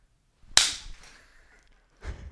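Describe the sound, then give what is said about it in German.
A single sharp, loud hand clap by Ray of a band, backstage in the Kapitol, with a brief ringing tail that fades over about a second, followed by a softer, duller knock. No one speaks. “Also es war der Ray, der gerade geklatscht hat.”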